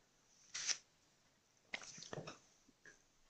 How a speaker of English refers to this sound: he's playing advanced scout, so we've got a brief pause here as he shuffles cards from hand into deck to draw three new ones.